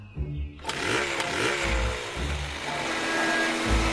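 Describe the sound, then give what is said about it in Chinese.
A chainsaw's small engine, used to try to cut down a big beauty pine tree, roars to life after a brief low start, then runs steadily with a buzzing, rasping drone, its pitch wavering slightly throughout. “哼，这这什么锯子呀？连棵树都砍不了。”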